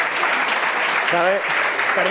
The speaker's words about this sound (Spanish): Fabuloso, tío, fabuloso. Un aplauso